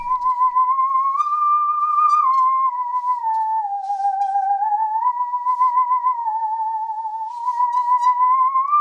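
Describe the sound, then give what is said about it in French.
A musical saw plays a single sustained, eerie tone that glides slowly up and down in pitch with a gentle wavering vibrato, unbroken for several seconds and with no voices. “Alors comment qu'on en joue de la scie musicale Eh ben c'est le même principe que le xylophone, figure-toi.”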